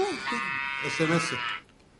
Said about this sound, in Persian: این صدای اسمسی شماه؟ نه برای من جوجه است صدای این گاوه